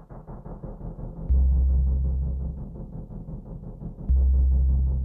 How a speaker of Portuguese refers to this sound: E, e, essa trilha é o que passa durante a datilografia, e, e tem, uma, tem uma intensidade diferente. Vou tocar aqui.